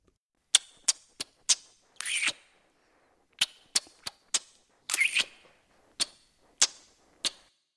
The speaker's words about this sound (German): Ja, habt ihr euch jetzt den Knutschrhythmus gemerkt? Wahrscheinlich nicht. Und deswegen hören wir uns nochmal an. Passt gut auf, denn ihr sollt ihn dann nachknutschen.